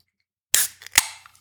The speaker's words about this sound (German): Und ihr habt da zwei Dosen vorbereitet. Vielleicht magst du die mit mir aufmachen.